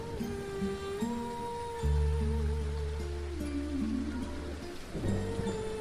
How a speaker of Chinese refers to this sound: 临窗听雨。雨声跌宕在一株枇杷上